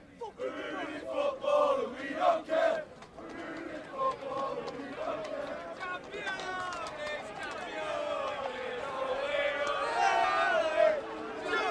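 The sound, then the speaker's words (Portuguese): A rowdy group of visiting Manchester City football fans, escorted by police in London, loudly chants a victory song about being champions, voices overlapping in a continuous, rising and falling chorus with shouting mixed in. “alguns acabaram pegando meu microfone aqui, cantando que são campeões e sabem disso”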